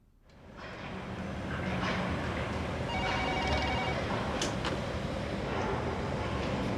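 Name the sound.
telephone ringing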